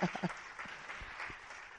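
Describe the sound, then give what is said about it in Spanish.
A short burst of audience applause at a congress, given to the speaker's mother-in-law, a pastor, as she stands up; a steady wash of many hands clapping at moderate, fairly quiet level, with a brief voiced sound at the very start. “Denle un aplauso a mi suegra.”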